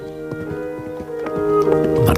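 Soft, steady hoofbeats of Kesan, a chestnut horse, galloping on sand, muffled and rhythmic, thud along beneath sustained musical tones that swell slightly louder toward the end.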